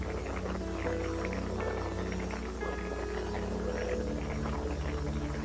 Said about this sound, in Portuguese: Estão ouvindo uma música lá no fundo?